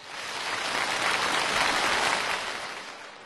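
A crowd of children bursts into steady applause on the speaker's raised-hand cue, a dense wash of many hands clapping that swells, holds for about three seconds, then tapers off. No one speaks over it.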